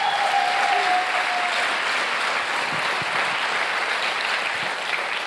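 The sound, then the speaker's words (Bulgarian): A large audience claps steadily and loudly for several seconds, a dense, continuous wash of applause with no voices standing out, easing only slightly toward the end. “О, ако ръкопляскаш, ръкопляскай, като че наистина вярваш.”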